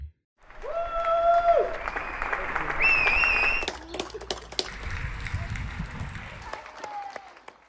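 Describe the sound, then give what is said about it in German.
People across Switzerland applaud together for nursing staff in spring during the pandemic, steady clapping mixed with shrill whistles and shouted cheers, loud throughout before trailing off near the end. “Wir haben es gehört, hier gerade im Frühling vor einem Jahr hat die ganze Schweiz, fast die ganze Schweiz, äh, für das Pflegepersonal geklatscht”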